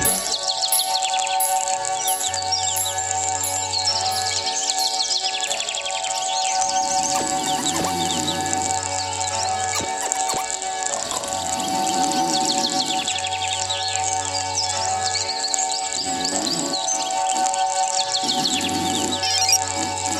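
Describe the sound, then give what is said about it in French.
A dense, continuous chorus of birds chirping and tweeting fills the whole stretch, steady and fairly loud, with a low droning tone pulsing in and out beneath it every few seconds. “Je m'endors avec ces putains d'oiseaux.”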